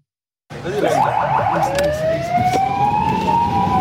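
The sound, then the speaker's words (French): A loud emergency siren of a Palestinian Red Crescent ambulance wails with rising and falling tones over the rumble of the vehicle speeding through streets in the middle of the night, starting abruptly after a brief silence and continuing steadily. “ambulancier du Croissant Rouge, fonce au volant de son véhicule.”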